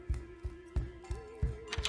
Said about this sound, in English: Did he just lock the door?